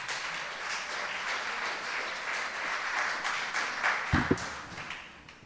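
A crowd at a church worship service applauds steadily, a dense wash of many hands clapping at once that holds even for several seconds, with a few louder knocks near the end before it starts to fade.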